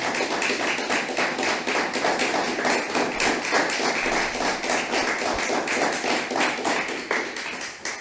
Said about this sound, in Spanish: Pues vamos a dar un fuerte aplauso para todos aquellos que nos están viendo.